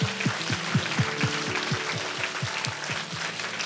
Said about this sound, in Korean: 우리 하나님께 영광의 박수 한번 드립니